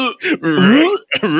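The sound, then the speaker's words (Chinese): A man fakes retching and burping with his voice, three rough, strained groans in quick succession, the middle one long and wavering, loud and throaty. “OK， 吐给你吐给你听。”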